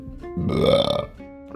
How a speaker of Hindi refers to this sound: डकार आ गई कट भी नहीं कर सकते यार इसको